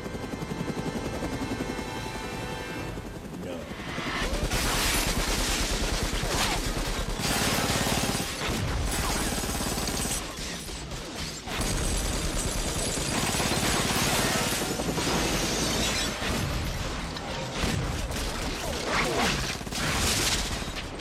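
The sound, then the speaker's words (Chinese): In a film scene, heavy machine gun fire from a helicopter's built-in gun rakes agents to suppress them, a loud, dense roar of rapid shots with glass shattering and debris crashing, while the rotor's steady drone runs underneath for about twenty seconds. “二人驾驶直升机前去援救老莫，用飞机上自带的重机枪对特工进行火力压制。”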